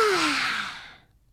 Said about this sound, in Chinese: 哦，隔壁房间也传来一个大大的哈欠声。